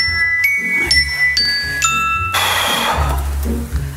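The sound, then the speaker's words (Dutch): A mobile phone ringtone chimes a quick series of bright, bell-like notes over a low, steady rumble, then gives way to a brighter, noisier wash of sound. “Jezus, je telefoon.”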